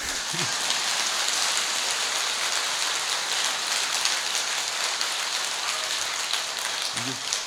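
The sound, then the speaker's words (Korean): An audience applauds in a steady, dense wash of clapping that holds an even loudness for about seven seconds, with faint traces of voices at the very start and end. “이런데 박수 한번 나와야 되는데.”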